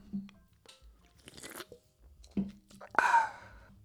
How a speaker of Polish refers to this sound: więc e, biorę łyka tutaj monsterka.